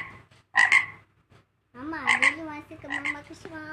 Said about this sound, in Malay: Aha, frog.